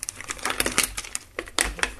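Crackling rustle of a plastic shopping bag being handled as sheep's cheese is taken out of it, with a quick run of sharp crinkly bursts over about two seconds and no talking.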